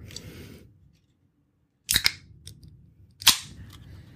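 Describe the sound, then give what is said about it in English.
A can of wild berry Truly hard seltzer is cracked open: a sharp double snap, then a louder pop about a second later, each trailing into a brief fizzy hiss over quiet room noise. “That was the sound of Charlie opening up a truly.”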